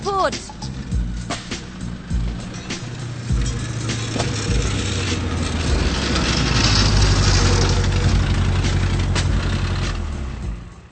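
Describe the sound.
A car with a broken exhaust pipe that needs repair idles loudly with a rough, rattling rumble, the low growl swelling steadily over several seconds while muffled voices sound faintly beneath it.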